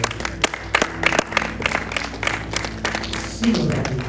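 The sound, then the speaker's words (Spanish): During a sermon, a crowd claps and applauds for the Lord steadily, a dense patter of many hands with a few sharper claps standing out, over a low murmur of voices. “Dale un fuerte aplauso al Señor por”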